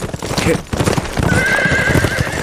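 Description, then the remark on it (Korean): Rapid clip-clop of galloping horse hooves throughout, with a loud horse whinny rising over the hoofbeats in the second half. Busy, with no talking. “달리는 거, 달리는 거, 탁탁탁 달리는 거 없나?”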